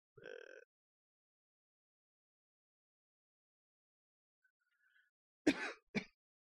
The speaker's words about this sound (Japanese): 咳するとあれなんですよね、こう、ギターがね、あの、私の後ろに置いてあるんですけども、共鳴しますね。微妙になるんですよね、こう。咳ってすごいですね。咳がすごいんじゃなくて、ギターがすごいのかなって感じなんですけども。